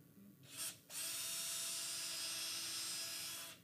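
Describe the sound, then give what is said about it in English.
A power drill fitted with a small drill bit gives a quick short whir, then runs steadily for nearly three seconds as it bores a starter hole into wood, loud, before winding down. No one speaks. “And I found out if you just take a little, that's probably about the right size, a little drill bit, you get the hole started.”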